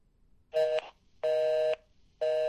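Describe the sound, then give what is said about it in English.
A telephone busy signal on a call being placed: a steady electronic tone pulsing on and off at a regular pace, three loud, clear bursts separated by short silences, with no voices. “We got a busy signal.”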